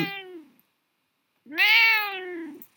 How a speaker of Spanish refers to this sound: No, hombre, me está maullando, me va a matar. Está modo preso.